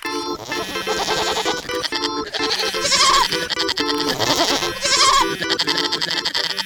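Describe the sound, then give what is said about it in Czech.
Young goats bleat loudly and almost without pause, several wavering, overlapping cries piling up in a noisy, continuous chorus with no talking. “Kůzlátka často hrála hry na počítači, fotila se na internet a hlavně u všech svých lumpáren natáčela videa a dělala u toho obří rámus.”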